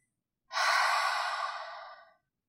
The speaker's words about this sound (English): We'll inhale through the nose to fill up the lungs and exhale through the mouth, making a sound like fogging a mirror. It will sound something like this.